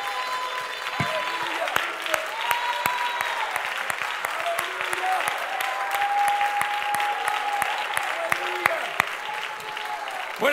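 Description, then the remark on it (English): A large crowd claps loudly and steadily to the Lord while scattered voices shout and cheer to God over the noise, a continuous wash of applause with sharp individual claps standing out throughout. “So let's shake off the nine, whatever o'clock, 37, and let's clap our hands to the Lord and shout to God with a voice of triumph.”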